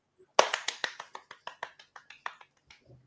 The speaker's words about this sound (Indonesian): Halo Pak. Oke, tepuk tangan sudah.